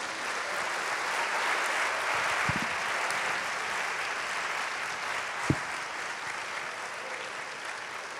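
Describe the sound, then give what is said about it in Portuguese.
A church audience applauds for Jesus, a dense wash of many hands clapping at an even level throughout, with a couple of sharper individual claps standing out near the middle and end. No one speaks. “A honra, o louvor e a glória e as palmas são para Jesus.”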